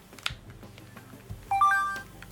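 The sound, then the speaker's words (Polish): A phone's power-on sound as the phone is switched on in its sound mode: a brief, bright rising chime of a few stepped electronic tones, fairly loud, following a couple of soft clicks, with no talking. “Włączam telefon.”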